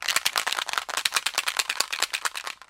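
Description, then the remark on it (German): A spray can shaken hard, the mixing ball inside rattling in a quick, steady stream of sharp clicks that runs for a few seconds and then stops. No one speaks. “Wenn ihr zum Beispiel neue Schuhe bekommen habt oder eine Jacke imprägnieren wollt, also wasserfest machen wollt oder vielleicht auch als Haarspray im Bad”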